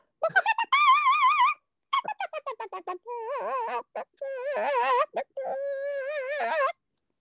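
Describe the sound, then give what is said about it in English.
A voice imitates a chicken singing opera, alternating rapid staccato clucks with long, warbling high notes full of exaggerated vibrato, loud and unaccompanied, with no words. “can i have just mm. a little more opera chicken before we move on”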